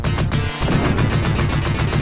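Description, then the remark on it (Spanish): Rapid video game gunfire rattles on almost without pause, a dense, loud burst of shots with a brief dip in the middle, and no one speaking over it. “Yo solo, digo que sin, valorar si eso no es, o sea, hay, que tener oído y ganas de ponerte a escuchar esa música después de toda la ensalada de tiros y de sonidos FX que se ponen”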